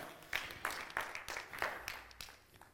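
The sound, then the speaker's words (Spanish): An audience applauds for God, the claps falling into a steady, quick rhythm with a dense wash of hand noise between beats, fairly soft. “Dale un fuerte aplauso a Dios.”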